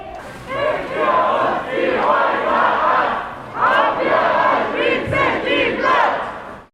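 A loud, angry crowd of protesters chants and shouts in unison at a demonstration against the destruction of G19 and Bike Kitchen, voices rising and falling in rhythmic bursts, sustained throughout.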